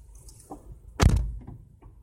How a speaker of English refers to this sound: He has to unlock his door. There you go. Nope. I don't, damn. All oh, your locks are broke, huh?